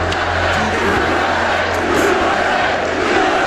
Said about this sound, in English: The president's at the podium now. The Pope's. Crowd starting to chant USA.